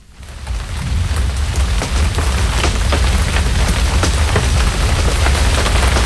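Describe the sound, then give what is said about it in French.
Steady, dense rain pours down in Paris on a Thursday, with scattered sharp drips and splats over a low rumbling undertone, swelling in during the first second and then holding constant with no voices. “C'est jeudi, je suis à Paris, il pleut,”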